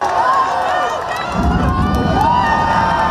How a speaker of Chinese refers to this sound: 等待已久的太空迷高声欢呼，见证着历史性的一刻。